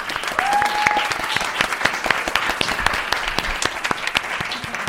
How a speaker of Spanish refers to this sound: Un aplauso, por favor. Bravo.